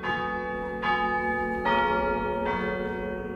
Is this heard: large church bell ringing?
yes